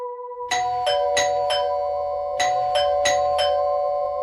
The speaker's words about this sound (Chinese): 门铃声清脆地传入了浴室。